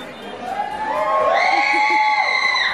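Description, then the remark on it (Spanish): A small group of young voices, students giving a farewell shout outside, yells together in a rising, sustained cheer, loud, with overlapping yells building over a couple of seconds outdoors. “Así es que manden un saludo, por favor, a ver si todavía hay gente suficiente aquí afuera para dar un grito de despedida.”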